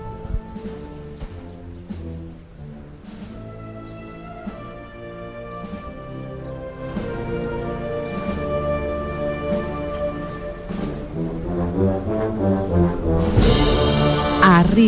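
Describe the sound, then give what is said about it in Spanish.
A brass band plays the slow, solemn Holy Week processional march 'De las nieves de Olivares' in the Plaza de San Francisco as the Virgen de las Angustias of the Hermandad de los Gitanos passes, with sustained low horns and steady harmonies, swelling gradually louder toward the end, with no voices. “La banda han entrado ah, con un paso tranquilo, suave, sin ninguna estridencia”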